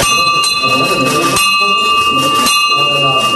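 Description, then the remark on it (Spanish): A victory bell is rung at a university hospital in Santander by a woman who has finished her cancer treatment, about three sharp strikes blending into a steady, sustained ringing tone, loud, with indistinct voices murmuring underneath. “terminó su tratamiento oncológico y va a tocar la campana de la victoria.”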